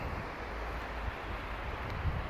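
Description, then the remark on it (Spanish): A steady, continuous roar of ocean surf washing against the shore in Montecristi province, northwestern Dominican Republic, mixed with low wind rumble, with no voices. “Y precisamente a propósito de la provincia Montecristi, de encontrarme en este lugar con el silencio que hace ruido de las olas colisionando con la costa,”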